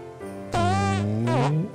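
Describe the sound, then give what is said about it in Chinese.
A voice imitates a long, buzzy fart, a low droning raspberry lasting about a second that wobbles and then rises in pitch at the end, with no spoken words. “看来小红帽又吃太多地瓜了，才会一直放屁。”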